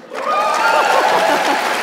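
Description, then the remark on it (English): A crowd bursts into steady applause, many hands clapping at once in a dense, sustained wash of sound that rises quickly and holds at full volume, with a few faint voices mixed in. “The round of applause. The round of applause is for your segue.”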